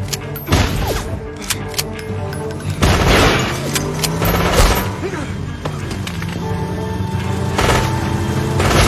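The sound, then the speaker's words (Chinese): Loud, sharp gunshots crack out in irregular bursts over a low, rumbling background, like a movie shootout with several weapons firing back and forth, as a man and the returning Autobots open fire on each other in a film scene. “双方没有任何废话，举枪便干。”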